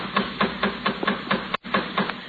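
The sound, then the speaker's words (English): Someone knocks on a door in a steady series of firm, hollow raps, about two per second, with a brief pause partway through and no voices. “The door.”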